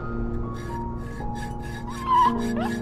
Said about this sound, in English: while I was in the middle of sawing the chain for the fifth time. Half of its teeth had broken off in the process, but I had stubbornly continued my work.